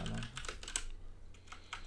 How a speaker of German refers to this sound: Ich weiß, meine Tastatur ist leider etwas laut gerade. Ich kann sie ändern.